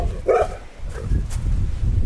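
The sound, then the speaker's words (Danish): A dog named Nana gives one sharp bark followed by a softer yelp, over a steady low rumble of outdoor background noise. “Det er hunden Nana.”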